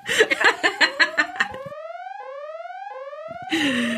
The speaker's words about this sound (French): eh bien, vous avez entendu euh, l'alarme des spoilers. Ça veut dire qu'à partir de maintenant, si vous écoutez Sort le Popcorn, vous serez spoilé de fond en comble.